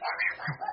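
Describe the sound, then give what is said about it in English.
A dog barks in a quick, sharp burst lasting under a second, moderately loud, with no other sounds around it. “Excuse my dog ro- barking.”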